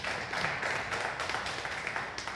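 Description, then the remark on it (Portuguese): A crowd applauding Jesus steadily, dense overlapping claps forming a continuous wash of sound at an even level for a couple of seconds, with no voices standing out. “Aplauda mais uma vez Jesus.”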